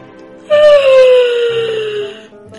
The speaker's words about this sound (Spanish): Dory bostezó.